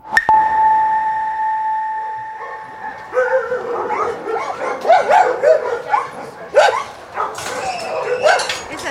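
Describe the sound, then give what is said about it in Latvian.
A steady whine-like tone fades into a busy chorus of several dogs barking and yipping at an animal shelter in Stopiņi municipality, Latvia, overlapping in quick, irregular bursts with some high whimpers mixed in. “Runa ir par suņiem.”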